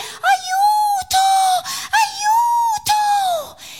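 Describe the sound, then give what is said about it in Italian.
A voice imitates a woman in a told story screaming on seeing a wolf: two long, high, wavering wails, each rising and then sliding down, separated by sharp gasping breaths, loud and with no other talk. “Ma la donna si voltò e lo vide e cominciò a gridare”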